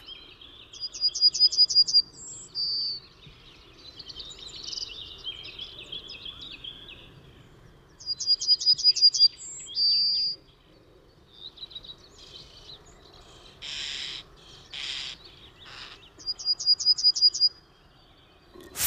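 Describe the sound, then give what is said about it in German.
A yellowhammer sings three times, each phrase a quick run of identical high notes ending in a drawn-out final note, with other birds chirping between the songs over a soft outdoor hum. “Aber man hört eigentlich den Gesang relativ häufig.”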